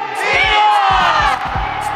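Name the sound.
crowd cheering and shouting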